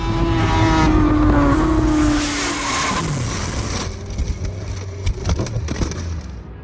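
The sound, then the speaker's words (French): Loud racing motorcycle engines howl, then their pitch drops sharply as the bikes brake and lean into the first corner of a race to take the best line, followed by rougher rumbling and scattered mechanical clatter. “À l'approche du premier virage, les motos s'affaissent pour prendre la meilleure trajectoire possible.”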